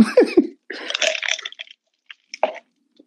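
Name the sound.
sipping a drink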